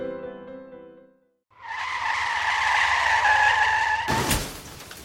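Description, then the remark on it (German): A loud, sustained screech of car tires skidding under hard braking lasts a couple of seconds and ends in an abrupt noisy burst, after a brief humming tone and a moment of silence. “Let's stop the car and see if there's another way.”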